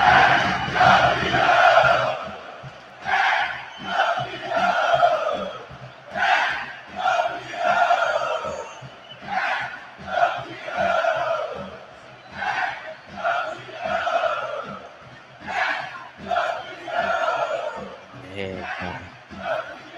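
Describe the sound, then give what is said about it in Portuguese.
A huge stadium crowd roars as Palmeiras lift the trophy in celebration, voices surging in repeated waves of chanting and cheering that stay loud and dense throughout. “Palmeiras levantando a taça, comemorando. Deixa eu colocar o som aqui para vocês ouvirem.”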